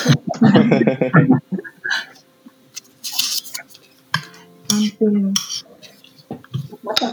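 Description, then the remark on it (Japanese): Scattered metallic clinks of a spoon against a bowl as someone eats oatmeal at breakfast, irregular, with soft eating sounds and a burst of talking at the start. “オートミールを食べる音が聞こえる”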